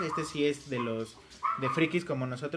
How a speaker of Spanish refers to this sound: Ese es un perro que se llama Wally. Saludos Wally, ¿cómo estás?